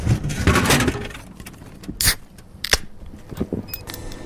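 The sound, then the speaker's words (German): Crinkly plastic rustling of chip bags being handled, taken into a music composition, with a dense burst of crackling at the start followed by scattered sharp crinkles and snaps, fairly loud, no voices. “wo Geräusche von Junkfood-Automaten und das Rascheln von Chipspackungen in die Komposition aufgenommen werden.”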